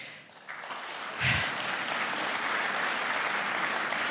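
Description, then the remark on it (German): An audience claps steadily at the Bavarian Book Prize ceremony in a dense wash of applause that swells early and stays loud and even throughout, with a low thump near the start and no talking. “Ich versuche das mit dem Applaus auf die Kategorie zu äh, konzentrieren.”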